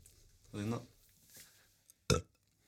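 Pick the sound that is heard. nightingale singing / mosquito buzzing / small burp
small burp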